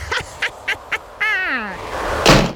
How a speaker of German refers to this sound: Was schwimmt auf dem Wasser und fängt mit Z an? Zwei Enten.